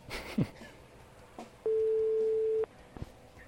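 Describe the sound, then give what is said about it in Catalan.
A single steady telephone ringback tone of a call made live on air from Boca Ràdio sounds for about a second, loud and clear, with a few faint clicks and light noise around it and no one speaking. “Sí que has trigat, tio, a agafar la, el telèfon.”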